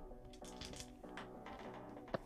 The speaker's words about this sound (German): Äh, würfeln wir mal einen W20.